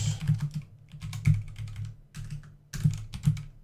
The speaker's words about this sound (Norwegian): Vi hører musa og tastaturet ditt ganske sterkt